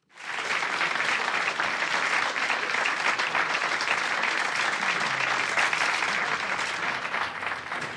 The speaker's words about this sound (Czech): Ten potlesk patří panu prezidentu Václavu Havlovi, přišel mezi nás a my mu teď zaspíváme.